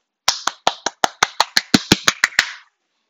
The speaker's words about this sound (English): And yes, I just clapped.